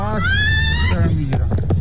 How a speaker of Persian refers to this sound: این صدای جیغ کشیدن زنی است در برابر حمله زنی دیگر که به زور میخواهد او را به سوی اتومبیلی بکشاند تلاشی که نمیدانیم به چه سرانجامی میرسد